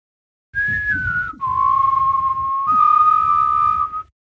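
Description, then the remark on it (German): A person whistles the Krombacher jingle tone: three long, steady notes, the first slightly higher and gliding down, then two held tones, with faint breathy noise underneath. “Krombacher, kannst du da nochmal kurz den Pfeifton dazu machen?”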